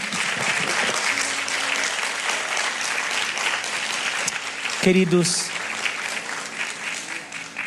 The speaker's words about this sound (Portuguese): Queridos, você pode aplaudir o Senhor Deus nesse instante.